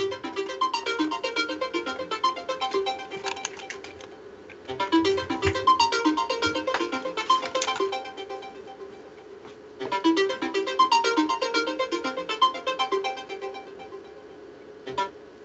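A melodic phone ringtone plays loudly, repeating its tune in three bursts of about five seconds each, separated by brief pauses, with no one speaking, as a call comes in to the speaker's phone.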